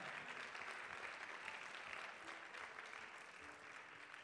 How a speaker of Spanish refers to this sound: Si tú lo crees, dale un aplauso fuerte en esta mañana. Come on, give the Lord your best hand clap.